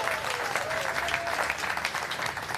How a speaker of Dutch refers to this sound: Dankjewel, maar ook een groot applaus